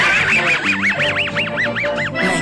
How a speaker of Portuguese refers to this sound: Vocês já passaram a corrida maluca, do Wacky Racers, e nada como ouvir esse riso do Mudley para começar uma segunda-feira animada.